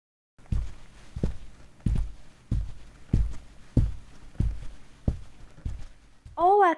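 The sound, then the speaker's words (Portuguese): Heavy foley footsteps, made with materials and objects to accompany a scene seen on screen, thud at a steady, even walking pace, about ten steps in all, each a dull low impact, before a voice briefly cuts in at the very end. “Por estarmos acostumados, às vezes estes sons passam sem chamar muito a nossa atenção, como simples sons de passos,”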